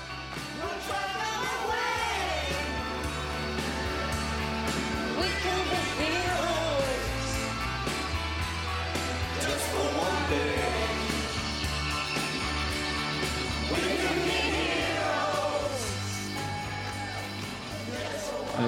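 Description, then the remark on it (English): A British advert's soundtrack: a full, steady 1977 song plays throughout while a chorus of many ordinary people in a block of flats sings along from their windows, mixed with occasional cheers and whoops, loud and continuous from start to finish. “depicts ordinary people in a block of flats dancing from their windows to … 1977 song …”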